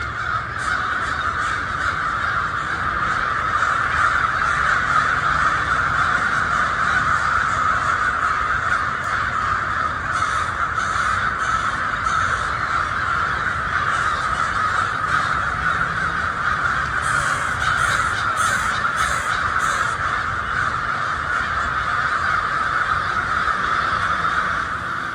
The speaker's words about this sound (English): That was Crows in Bloomington, 2024 edition, recorded by Amy Pickard.